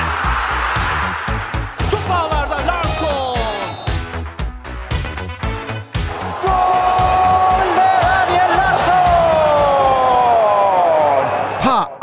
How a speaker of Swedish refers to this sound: Fan vad roligt det känns att höra den där vignetten igen. Det var bra jävla länge sedan.